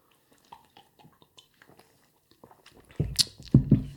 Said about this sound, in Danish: Det smager jo af øl. Læsken, ja. Ja. Ja. ja. Og ølsmag. Den er godkendt.